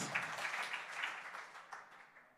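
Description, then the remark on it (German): An audience in a church applauds for those at the Schauburg in Dortmund, a dense wash of many hands clapping together, steady at first and then gradually thinning and fading out over a couple of seconds. No one speaks over it. “Alle, die in der Schauburg in Dortmund sind, lasst uns mal einen Applaus hier aus dem Raum an die an Dortmund geben.”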